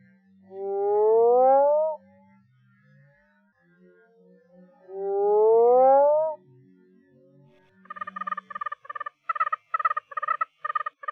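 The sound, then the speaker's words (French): Oriental fire-bellied toad males calling: two long, rising, droning calls, then a quick regular run of short, bright pulsing notes, all fairly loud with no talking. “Bombina orientalis, qui est une grenouille euh, rigolote.”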